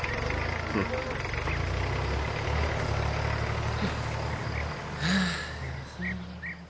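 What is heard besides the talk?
tractor engine idling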